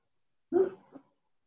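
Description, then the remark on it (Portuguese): A pet named Gilberto retches onto a keyboard, one forceful heaving gag followed a moment later by a weaker second heave, with no talking around it. “Olha, o Gilberto tá vomitando no teclado.”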